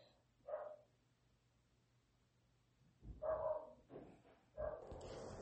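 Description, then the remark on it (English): Dogs bark in short bursts: one sharp bark, a pause, then a louder cluster of barks and yips near the end, with a low hum beneath. “um excuse me guys I I was paused again dealing with the dogs”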